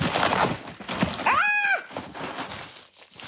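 A package being ripped open, with continuous crackly tearing and crinkling across the whole moment, broken midway by a short squeal that rises and falls.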